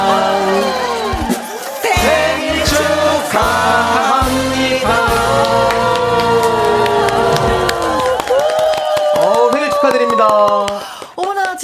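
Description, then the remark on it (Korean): Loud voices sing a birthday song together in harmony, performed live by a singer on a Korean radio show as a birthday dedication for listeners, sustained melodic lines running steadily throughout with a lively, cheerful energy and no break for talking. “자, 그럼 지금부터 힘있게 노래 한번 불러보도록 하겠습니다.”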